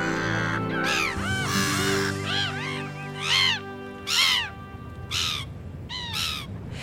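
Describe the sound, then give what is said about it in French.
A herring gull in Paris calls loudly, a series of about eight harsh, wailing cries in an irregular rhythm, each rising and falling, over a low background hum. “Aujourd'hui, le goéland argenté et la moitrieuse.”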